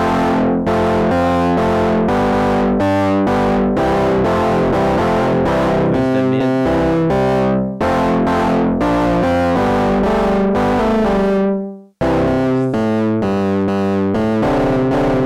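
Electric guitar played through an overdrive pedal effect: a loud, heavy riff of repeated chords with crunchy, saturated distortion, briefly cutting out near the end before resuming. No talking.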